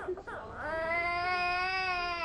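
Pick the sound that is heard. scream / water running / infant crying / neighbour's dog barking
infant crying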